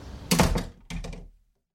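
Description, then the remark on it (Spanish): A house's front door opens: a sharp rattling clack of the latch, then a second heavier clunk as it swings. Two quick mechanical bursts, no voices. “Me dirigí hacia la casa y la sensación de inquietud solo se intensificó cuando abrí la puerta principal.”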